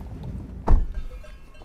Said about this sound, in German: Nach einer kurzen, holprigen Fahrt sind wir da, im Zentrum für alpine Biologie und werden von den Kühen begrüßt.